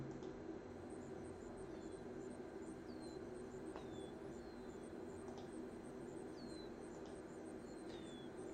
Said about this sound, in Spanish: Entonces, eh, un poco en honor a este chochín, eh, en lugar de tener hilo musical, voy a poner eh, sonido de pajaritos.